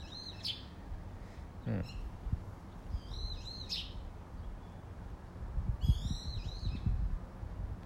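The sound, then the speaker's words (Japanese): Birds chirp outdoors around a house on a mild late-October morning of about 10 degrees, in repeated bright bursts, a few calls near 0.5, 3 and 6 seconds, over steady low background noise; a person briefly murmurs once. “うん、結構鳥鳴いてますね うまく撮れてるといいんですけど、まあ、こんな感じであの朝はあの外の、ね、音を撮りながら収録っていうのもいいかなと思っております。”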